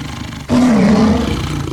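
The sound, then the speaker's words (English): A mountain lion lets out a single loud roar that bursts in abruptly after a brief low rumble and holds for over a second with a deep, growling tone. No one speaks. “But this mountain lion will do it, and if I don't get out of here, he'll do me too.”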